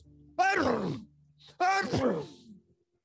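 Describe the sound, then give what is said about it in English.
A voice performs two loud, drawn-out, uncontrollable sneezes in quick succession, each a breathy rising gasp that collapses into a wavering, groan-like release, with a short pause between them. “Eh, Dr. Stinky Breath started to sneeze uncontrollably.”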